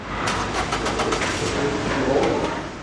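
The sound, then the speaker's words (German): One car after another's engine idles as it rolls slowly over a test lane in a large echoing vehicle inspection hall in Schafissen in the morning, a steady low rumble with faint clicks and clatter, continuous, with no one talking. “In der Halle der Motorfahrzeugkontrolle Schafissen ist heute am Morgen ein Auto nach dem anderen langsam über eine der Prüfstrassen gefahren.”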